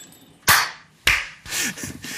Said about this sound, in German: Ich klatsche und dann, dann guckst du noch drei Sekunden so und dann klatscht er auch.